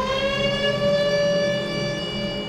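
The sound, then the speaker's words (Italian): A factory siren in Colleferro, Italy, a small town built around the factory, wails in a steady, sustained tone, loud and unbroken throughout, with a rich stack of harmonics and no voices present. “con le ciminiere che fanno da campanili e il suono novecentesco delle sirene che sostituisce quello eterno delle campane.”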